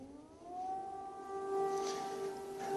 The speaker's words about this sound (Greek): Ηχούν οι σιρήνε εδώ στην Οδυσσό. Τι ακούτε. Είναι η πρώτη φορά που ηχούν για σήμερα. Ήδη είμαστε σε απαγόρευση κυκλοφορίας. Ηχούν για αρκετή ώρα.